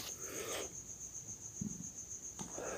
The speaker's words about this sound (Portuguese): Tudo que a gente tem são é o grilinho fazendo barulho, que eu acho que vocês estão ouvindo com certeza.